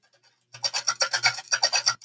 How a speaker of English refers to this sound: Of course, it starts with horse trotting.